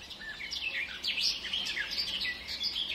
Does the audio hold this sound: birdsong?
yes